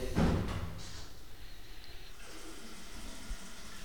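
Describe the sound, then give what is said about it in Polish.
A bathroom tap runs with a steady, soft rushing hiss that continues for a few seconds, preceded by a brief louder burst as the water starts. No one speaks. “Łazienka, tak jak wcześniej, mogę puścić wodę.”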